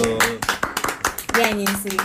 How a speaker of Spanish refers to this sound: Y bueno, chicos, si llegaron hasta aquí, un aplauso. Un aplauso.